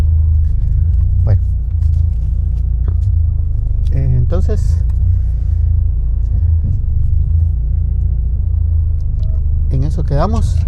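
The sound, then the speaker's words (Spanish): A steady, loud low rumble of street traffic on a Saturday, with around 15 cars passing continuously. Brief bits of voices rise over the noise now and then. “Bueno, entonces eh, ya hay bastantes carros, hay como unos 15 carros.”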